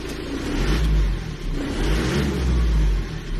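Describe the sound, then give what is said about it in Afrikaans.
A loud 2.8-litre turbo diesel engine of a JMC bakkie (pickup) starts and runs with a heavy low rumble and rough clatter, surging slightly as it revs, heard with the windows open. No one speaks. “Dis hoe lawaaiig die masjien klink met die vensters oop wanneer jy hom aanskakel.”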